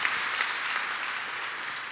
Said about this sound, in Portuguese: Você pode dar uma salva de palmas de novo a Deus, ah, mais alta em nome de Jesus, em nome de Jesus.